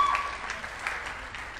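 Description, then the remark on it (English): A crowd in a building claps and cheers together after being asked to make some noise, a dense steady wash of applause with a few brighter whoops rising above it, sounding like a large audience. “I'm just curious, how many hope pushers do we have in the building? Come on, make some noise.”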